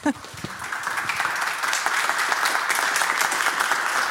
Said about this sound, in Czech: to potlesk